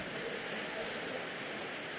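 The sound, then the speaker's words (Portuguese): Steady rain falls outside a church with a continuous, even hiss, filling the space without pauses or distinct drops standing out. “O barulho que você está ouvindo não é um ruído do som da igreja, mas é chuva.”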